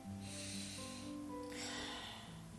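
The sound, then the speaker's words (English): A slow, deep inhale of breath, soft and airy, followed by another breath drawn in during a breathing exercise, over a quiet, steady musical drone. “Now I want to do deep breath in again.”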